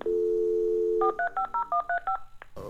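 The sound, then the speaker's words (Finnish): A steady telephone dial tone hums for about a second, then eight quick keypad tones beep in a rapid rhythm, each a short dual-pitch burst, ending abruptly with a click of noise, as a phone call is placed to a space expert. “No, nyt kuitenkin luuri käteen ja avaruusasiantuntija”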